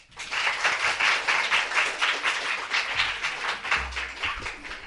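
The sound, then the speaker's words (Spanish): A crowd applauds loudly and steadily, many hands clapping in a dense, continuous patter that holds for several seconds with slight swells in intensity. “Un fuerte aplauso.”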